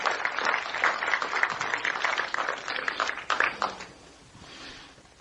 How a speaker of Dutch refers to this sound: Zullen we een applaus geven voor Koning Jezus? Amen. Prijs God. Prijs God.